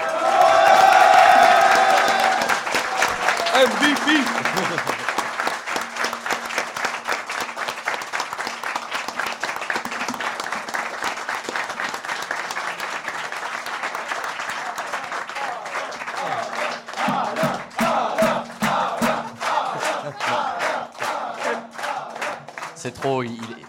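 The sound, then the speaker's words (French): A loud, sustained burst of applause from a large crowd, with cheers and whoops rising at the start, then dense clapping that thins into scattered claps near the end. “Et donc je pense qu'on peut aussi lui faire un tonnerre d'applaudissements pour ça.”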